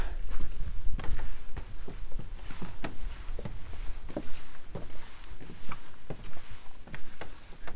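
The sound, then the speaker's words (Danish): Footsteps climb the stairs of a bird-watching tower by Smingesø near Silkeborg, Denmark, as light rain begins, in a steady, fairly quick rhythm, each step a distinct thud or knock over a constant background hiss like rain or wind. “Så går vi op ad trappen her.”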